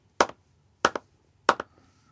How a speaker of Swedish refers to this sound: Jag klappar fel. Jag klappar fel.